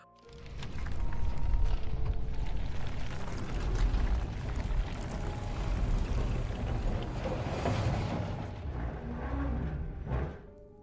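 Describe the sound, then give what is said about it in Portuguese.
A heavy, grinding scrape of moving stone drags on for about ten seconds, deep and rumbling with metallic creaks mixed in as a massive iron gate slowly lifts, fairly loud with no voices. “Nisso, vocês escutam novamente um som de, de pedra, de movimento de pedra raspando, e o portão de ferro se levanta.”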